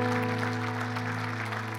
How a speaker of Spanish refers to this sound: un fuerte aplauso al Señor que nos ha constituido, constituido como familia.